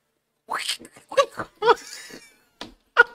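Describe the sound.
A person imitates a capybara call with a run of squeaky, bleating vocal bursts, about five short uneven calls, with no talking around them.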